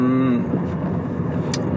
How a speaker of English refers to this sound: I'm driving, so you might might hear my car, you know.